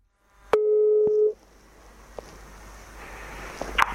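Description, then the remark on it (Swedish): A single steady telephone ringback tone sounds for under a second, framed by line clicks, followed by faint hiss and crackle of an open phone line, as a call is placed to a person living in Haparanda, Sweden. “Jag ringde upp Göran Wigren som bor i Haparanda”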